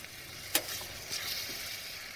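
Steady crackling sizzle of onions and ground meat frying in a pan, moderately loud, with a sharp clack near the start like a utensil against the pan.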